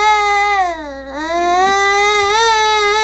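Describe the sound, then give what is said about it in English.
A baby wails in one long, continuous cry, its pitch sagging briefly then rising again, loud and insistent with no talking over it. “Sounds like the world's cutest okay. Oh. co-host. Having a bit of a rougher day.”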